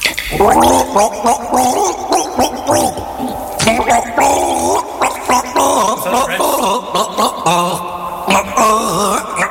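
gargling water

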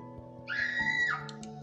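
loud scream

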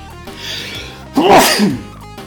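sneeze

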